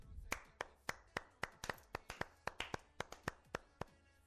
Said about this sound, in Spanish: Porque porque hay que aplaudirlo, porque se lo merece. Se lo merece.